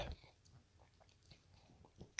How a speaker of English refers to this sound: I, have been drinking it a little bit this evening, but I'll, I'll take a sip right now to give you a more of a definitive, at this moment, opinion on the drink.